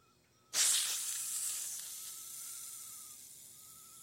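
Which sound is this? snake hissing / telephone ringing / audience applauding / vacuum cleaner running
snake hissing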